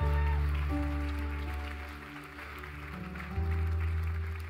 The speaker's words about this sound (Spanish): Vamos, dale un fuerte aplauso al rey si lo crees.